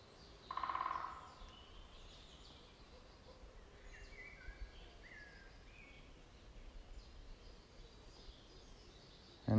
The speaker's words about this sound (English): as you listen to the songs of the birds